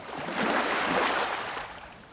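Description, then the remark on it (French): A single wave breaks and washes in a broad hiss of churning water, swelling quickly and then slowly fading as the foam settles. No voices. “Le son de la vague n'est audible que lorsqu'il rencontre un obstacle, un rocher, un bateau, ou tout simplement l'eau lorsque la vague s'enroule sur elle-même.”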